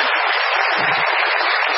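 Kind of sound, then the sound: crowd, audience applause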